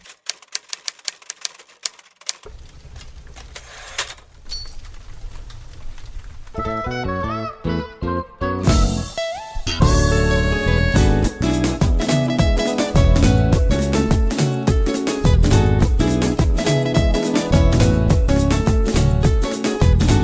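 Upbeat marrabenta music starts with sparse, clicking percussion, then guitars and bass join and build into a loud, driving dance rhythm that plays steadily to the end, with no voices.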